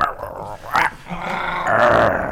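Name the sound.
dogs growling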